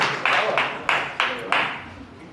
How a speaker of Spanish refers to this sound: Un aplauso ahí donde están.